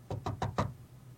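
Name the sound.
knocking on a door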